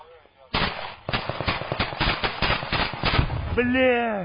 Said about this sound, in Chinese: 就在这个时候，官兵又发现了一架俄军无人机朝阵地飞来，刚好成为第三突击旅官兵的出气筒，举起步枪就是一轮点放，打不到没关系，只要沿着无人机的飞行轨迹撒子弹就是了。